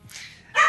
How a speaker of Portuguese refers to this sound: Eu, eu Esse é meu cachorro latindo.